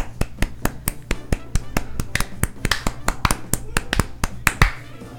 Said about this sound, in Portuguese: Tem somzinho de palma aí?